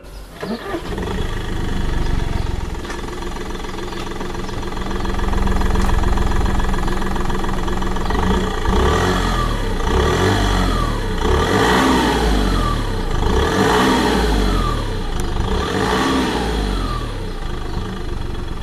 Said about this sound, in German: Dieselig. Dreizylindrig. Ja. Also er klingt nicht wirklich mächtig, ne? Also es ist ein bescheidener kleiner Dieselsound. Wir sprechen heute über den Audi A2 3 Liter.